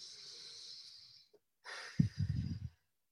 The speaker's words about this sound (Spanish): Vamos a repetirla respirando profundo.